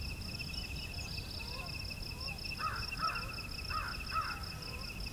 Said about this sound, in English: American Crow.